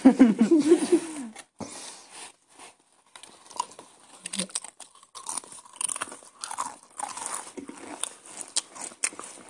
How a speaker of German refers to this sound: Du musst so richtig laut schmatzen, weißt du.